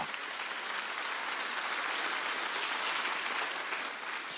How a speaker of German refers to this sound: Geben wir mal dem Herrn einen Applaus dafür.